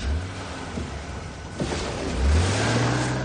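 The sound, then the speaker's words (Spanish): A car engine turns over and catches, then revs with a rising low hum as the vehicle pulls away, steady throaty drone growing louder toward the end. No voices. “arranca el coche y se va.”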